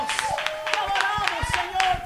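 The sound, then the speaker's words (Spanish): An audience applauds the Lord with loud, uneven claps, while voices shout and cheer over the clapping throughout. “Dale un fuerte aplauso al Señor.”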